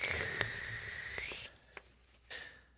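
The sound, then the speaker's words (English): An airy slurp of someone sucking a drink through their lips, hissy with a few wet clicks, then a short pause and one more brief sip at the end. “Didn't mean to let you hear me slurping over there.”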